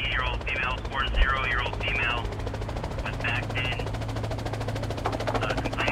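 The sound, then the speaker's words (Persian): A logging company's helicopter, which was surveying the area, flies by, its steady rapid rotor chop and low engine drone filling the whole stretch, while a muffled, radio-like voice speaks intermittently over it; it answers a call for help from a logging camp and carries an injured man to a hospital 65 miles away. “هلیکوپتر یکی از شرکت های الوارکنی که تو اون منطقه نقشه برداری میکرد پیام کمک رو شنیدن و خیلی سریع به کارگاه رفتن”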